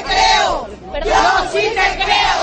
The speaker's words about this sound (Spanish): Bueno, estáis escuchando los gritos de todas las concentradas aquí que cuando se leía la sentencia ya empezaban a mostrar su indignación.